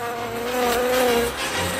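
Bees buzz steadily, a continuous droning hum that swells slightly in the middle and then eases back, with no voices present.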